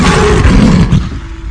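A lion's deep, rumbling roar fills the moment, loud, swelling for about a second before trailing off into a lower growl. No one speaks over it.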